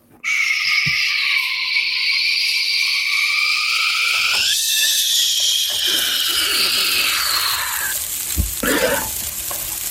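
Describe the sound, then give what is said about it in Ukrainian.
A voice imitates onions sizzling in a frying pan: a loud, steady hiss with a whistly, shifting tone that runs almost ten seconds before breaking off near the end. “Да, ти просто уяви собі, що дивись, ти смажиш цибулю, і вона така.”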